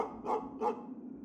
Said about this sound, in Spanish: Mientras conducíamos por una solitaria ruta, nos llamó la atención un grupo de perros que se encontraban en el costado del camino. Estaban inquietos y ladraban frenéticamente, como si estuvieran tratando de advertirnos algo.